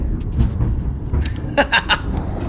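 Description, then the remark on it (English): Thunder rolls outside in a deep, steady rumble that fills the whole stretch, with a few brief, brighter voice-like bursts rising over it toward the end. “This chapter, excuse the thunder outside.”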